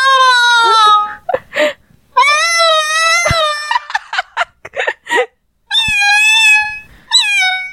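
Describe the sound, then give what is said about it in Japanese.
A person imitates an angry cat on an Otamatone with a series of drawn-out, wavering yowls and short cries, loud, separated by brief pauses with some breathy noises between them. “にゃんこの音を、猫の音をやってみるか。”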